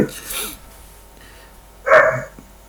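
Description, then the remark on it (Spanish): A small female house dog lets out one short, sharp, loud bark near the end, after a brief burst of quieter noise and faint voice-like sounds. “Esa se llama Negrita, es la perrita de la casa.”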